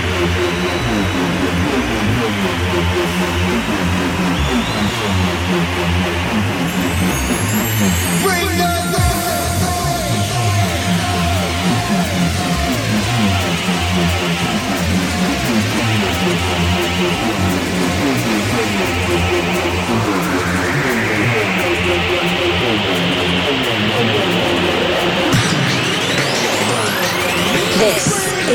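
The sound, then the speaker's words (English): A loud, gritty drum and bass track plays on its own, with dense driving beats, distorted bass and a rising synth sweep building toward the end. “It's got some grit to it, it's got some grime. Not that kind of grime, drum and bass grime.”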